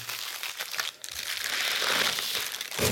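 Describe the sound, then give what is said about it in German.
Dry paper crinkling from a sandwich bag being handled, a steady rustle of crackles and crumples that swells and continues for a few seconds, with no voices. “Das ist schein, scheinbar eine Butterbrotstüte.”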